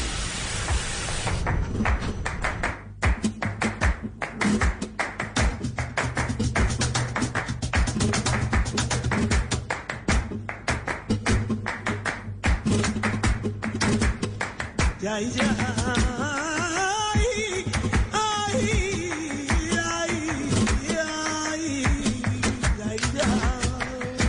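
Flamenco footwork taps rapidly on a tabletop, a dense stream of sharp, loud rhythmic strikes over guitar music, with a singing voice joining in during the second half.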